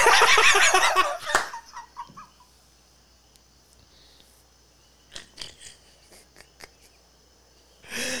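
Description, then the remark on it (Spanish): A rooster crows loudly at 10:03 at night, its call trailing off after about two seconds, followed by a quiet stretch with faint insect chirping and scattered small clicks. “Y ahí estamos tratando de competir nosotros contra el gallo.”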